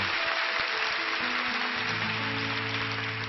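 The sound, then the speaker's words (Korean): A church audience applauds to give glory to God after a prayer, in a dense, steady wash of clapping that holds at an even loudness throughout, with a low sustained keyboard tone humming underneath in the second half. “우리 삶의 새해를 향하신 하나님께 영광의 박수를 올려드리겠습니다.”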